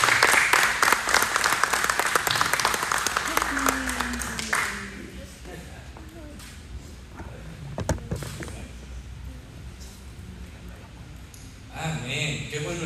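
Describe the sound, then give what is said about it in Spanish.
A church audience applauds loudly with dense, rapid clapping for about four seconds to welcome a preacher, then it drops off abruptly into quieter room noise with scattered thuds and a brief voice near the end. “Recíbelo nuevamente con un fuerte aplauso, que hoy hay una palabra.”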